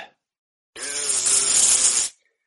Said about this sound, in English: do the, the buzz sound, please. The buzz.